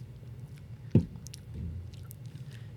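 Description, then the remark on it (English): A drink can is cracked open with one sharp pop, followed by a soft, faint fizz of foam over a low background hum. No one speaks. “We're gonna get that that good crack sound.”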